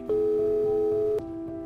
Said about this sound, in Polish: sama zadzwoniła do córki. Jeden sygnał, drugi, potem trzeci.